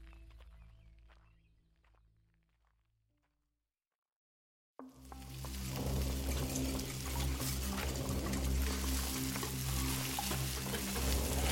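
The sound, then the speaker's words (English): Steak sizzles loudly and steadily in a hot pan while being stirred as dinner is prepared, the frying starting suddenly after a few quiet seconds of faint kitchen clatter and a brief silence. “I hope you all like steak. I've made my famous steak au poivre soup.”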